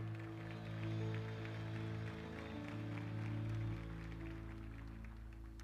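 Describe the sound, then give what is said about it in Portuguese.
A church audience claps steadily together, a dense, even patter of many hands lasting several seconds, with sustained low keyboard chords droning underneath, applauding the visiting church members from Poá. “Chegou muito tarde hoje, mas queria que vocês aplaudissem Jesus pela vida desse povo bonito que vem lá de Poá, por favor.”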